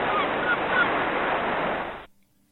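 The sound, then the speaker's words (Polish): A loud, dense chorus of seagulls calling and squealing over one another, continuous for about two seconds before cutting off abruptly into near silence. “No właśnie, mewy nam zaczęły śpiewać e, i piszczeć e, na tyle głośno, że przysłoniły swoim głosem syntezę mowy.”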